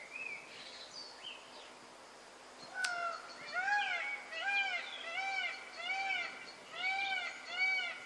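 A large bird gives a rapid series of loud, wailing, meow-like calls, about eight in steady rhythm, after a few quieter calls at the start.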